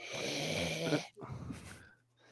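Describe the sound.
A person does a death-metal vocal growl: two harsh, raspy guttural bursts, the first about a second long and loud, then a brief gap and a shorter one fading out.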